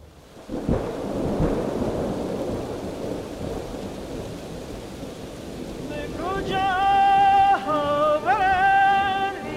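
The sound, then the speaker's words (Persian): Steady rain hisses throughout while deep thunder rumbles loudly in the first few seconds; near the end, a sustained melodic tone, like an instrument, rises over the downpour. “باران می آید”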